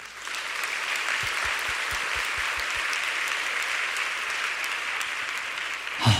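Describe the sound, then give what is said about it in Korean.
An audience bursts into sustained applause of encouragement, a dense, steady wash of many hands clapping that holds evenly for about six seconds before tapering off at the end, with no talking over it. “한번 격려의 박수 해주시겠어요?”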